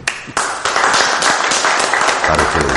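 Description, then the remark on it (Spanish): An audience bursts into sustained applause for itself, for continuing to come, a dense, steady wash of many hands clapping at once that holds at a strong, even level throughout. “Y por último, un aplauso para ustedes, por seguir viniendo.”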